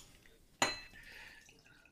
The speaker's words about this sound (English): Well, pour your drink, everyone. Let's raise a glass and thank all of our guests for joining us tonight.